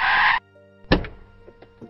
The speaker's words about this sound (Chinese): 车上的人开门下车，高头大马，金发碧眼，正是奥兰托恩。